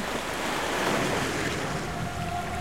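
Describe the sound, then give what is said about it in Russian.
Sea waves surge and foam at the shore in a continuous, broad wash of surf, loud, with a steady churning roar and a gusty wind-like hiss over it, no voices. “Всколыхнулись морские волны, вспенились, да не белая пена на волнах качается, а красная, как кровь.”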